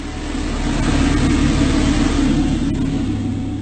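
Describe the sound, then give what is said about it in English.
A loud, steady roar fills an airliner cabin during an in-flight depressurization after debris pierced the fuselage, a dense low rumble with hissing wind noise above it, unbroken and constant throughout with no voices audible. “This passenger wearing her oxygen mask recording as a flight attendant desperately tries to calm people down.”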